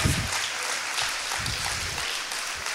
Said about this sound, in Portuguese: Graça e paz, amém? Quando está feliz com Jesus, aplaudam ele bem forte. Aleluia!